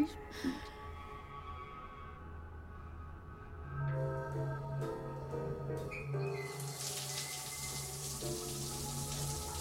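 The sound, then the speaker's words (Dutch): Water runs in a steady, rushing hiss like a shower, swelling louder in the second half, with a low hum and soft tonal background sounds underneath. “staat onder de douche, je ontspant. Alle problemen glijden van je af.”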